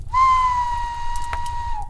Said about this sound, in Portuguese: Então escutei um longo assobio vindo da mata, bem demorada.